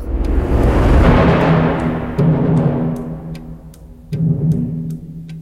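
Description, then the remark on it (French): A railway station clock ticks at a steady, even pace on a hot, grey, stormy day, sharp clicks cutting through a loud, low rumbling background hum that swells and dips. No one speaks. “Raoul Christophe a les yeux rivés sur l'horloge de la gare.”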